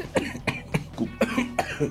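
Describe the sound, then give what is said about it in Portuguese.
A hoarse coughing fit from a person who has a cough: about six or seven harsh coughs in quick, uneven succession over a couple of seconds, with no talking in between. “Gente, eu tô com uma tosse, tá foda aqui.”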